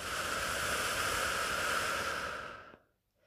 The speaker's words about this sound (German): atmet einmal tief ein, nehmt einen tiefen Atemzug, am besten durch die Nase und atmet wieder aus. Atmet wieder ein und atmet wieder aus.